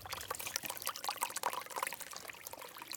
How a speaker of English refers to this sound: Come across this beautiful little babbling brook that runs through the trail.